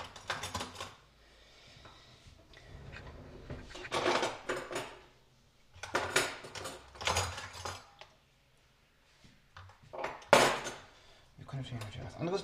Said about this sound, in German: Wohin wir die Teller machen. Das mache ich jetzt bewusst.